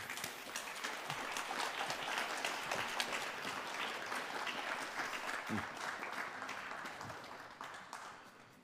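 An audience applauds steadily with dense, continuous clapping that stays loud throughout before easing slightly near the end.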